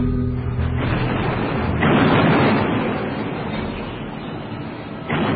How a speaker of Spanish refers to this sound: Trece días donde los mexicanos fueron cercando a los defensores del Álamo. Algunos ataques. Comenzó el cañoneo.